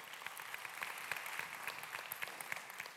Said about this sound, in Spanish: Como ven, si ahorita le damos un fuerte aplauso a todas las personas que nos acompañan hoy.